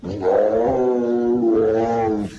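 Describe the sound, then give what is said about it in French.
Newborn Bengal tiger cubs of about 700 grams, whose mother refused to feed them, cry out in loud, sustained, wavering calls, two drawn-out wails running almost back to back, with no talking over them. “Et étonnant ces, cris de petits tigres.”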